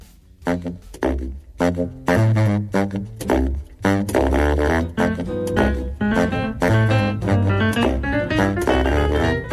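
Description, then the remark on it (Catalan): A jazz band featuring a 16-year-old girl on trumpet plays a lively, full-bodied passage, with a trumpet and other horns over punchy bass notes and a steady swinging rhythm, loud throughout with sharp accented attacks. “Ja ha fet més de 60 concerts als festivals de jazz més importants de Catalunya i que sona així de bé.”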